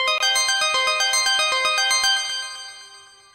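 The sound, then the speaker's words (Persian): A bright electronic mobile phone ringtone plays a quick repeating melody of tonal beeps, fairly loud, then fades out over the last second with no one speaking. “این اخلاق تو داری؟ پشت فرمون تلفن جواب میدی؟”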